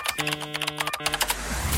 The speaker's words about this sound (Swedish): Ja, men jag tycker det här mm. med knappsmattringen eh, liksom på tangentbordet är bra.